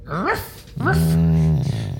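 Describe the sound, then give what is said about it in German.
A person voices a dog imitation: a short rising yelp, then a longer, sustained growling tone with a rough, throaty edge, loud and alone for about two seconds. “Jetzt haben wir einen Hund auch noch.”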